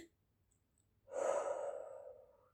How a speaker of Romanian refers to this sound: De pildă, să respir rar și adânc. Inspir